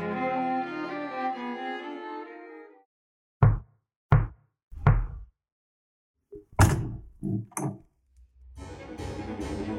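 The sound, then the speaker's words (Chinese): Three firm, evenly spaced knocks on a door ring out after gentle music fades, followed by a few quicker thumps and rattles before the music returns; in a children's story, an owl knocks on the door of a house with a white roof. “于是他决定飞向白色屋顶的房子，鼓起勇气敲敲门。”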